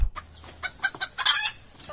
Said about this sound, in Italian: Via, via, sciò, sciò. Cosa c'entrano le galline adesso?